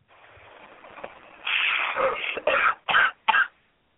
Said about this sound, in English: Oh, there it is. Now I recognize. I, I know that cough from anywhere. That's my partner.